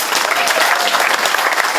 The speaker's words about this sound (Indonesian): Mari kita tepuk tangan bagi orang tua kita.